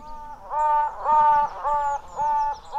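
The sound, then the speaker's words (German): A honeybee queen piping shortly before hatching, announcing herself to the reigning queen: about five buzzy, reedy toots in a steady rhythm, each lasting around half a second, clear with nothing else around. “So klingt eine Bienenkönigin kurz bevor sie schlüpft.”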